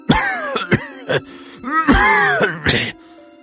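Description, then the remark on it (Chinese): An old man in a fit of harsh, violent coughing: around seven rough bursts in quick, uneven succession, broken by strained, groaning breaths, loud and raw over a faint steady hum. “老人说到这里，再次猛烈的咳嗽起来，几乎要咳出血来。”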